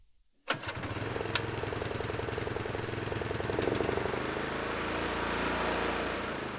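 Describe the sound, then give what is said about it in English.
A gas lawn mower engine kicks in abruptly after a brief silence, then runs steadily with a loud, rattling, buzzing drone for several seconds, no voices present. “In the heat and sun of summer, homeowners and landscapers fire up their gas lawn mowers to cut the heavily watered grass many of us grow, despite the semi arid climate of Colorado's high plains.”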